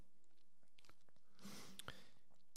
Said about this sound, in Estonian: väike lonks, nii.